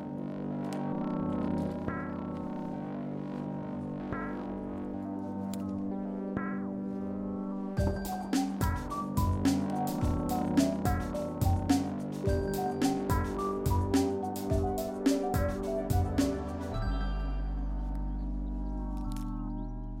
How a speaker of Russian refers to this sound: Сегодня мы можем с помощью определенных технологий извлекать звуки из грибов и получать благодаря этому музыку.